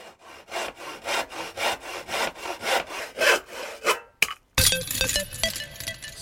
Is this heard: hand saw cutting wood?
yes